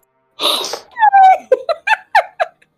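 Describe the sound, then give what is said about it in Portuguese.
A loud, close-up sniff bursts right into the microphone, followed by a string of short, voiced breathy puffs like quick gasps or stifled giggles, with no words spoken. “Caralho, quem tá respirando como um pedófilo? talvez, talvez tenha sido eu, mas aí foi só um, uma fungadinha.”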